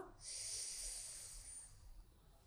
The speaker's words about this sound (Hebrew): ואנחנו ניקח כאן עוד חמש נשימות. מי שהצטרף, הצטרפה, שבו ונשמו דרך נחיר שמאל, שאיפה חזקה